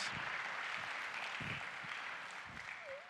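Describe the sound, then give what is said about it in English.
A crowd claps steadily in dense, sustained applause for the parents, a continuous bright patter of many hands with a few stronger low thumps mixed in throughout. “Give the parents a round of applause. Give them a hand.”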